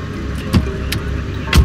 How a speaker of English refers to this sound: I barely got my car into park before I rushed inside.